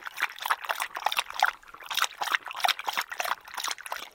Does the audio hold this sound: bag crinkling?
no